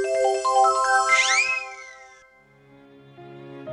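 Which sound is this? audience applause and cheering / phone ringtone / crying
phone ringtone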